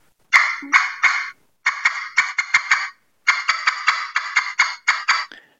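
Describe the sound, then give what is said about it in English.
An aluminum turkey call played loudly in three runs of raspy, high yelps, the first short and the later runs longer and quicker, with no talking over it. “So that second one's aluminum, then, right? Aluminum, yeah. That aluminum pops.”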